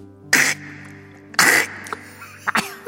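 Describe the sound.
A person acts out three harsh, choking coughs as if choking while chewing a dried yellow croaker (gulbi) fish head, the first two loud and strained, the last shorter with a raspy throat-clearing edge, like something caught in the throat.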